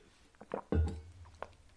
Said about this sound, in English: Sorry if you heard my office slurping noises.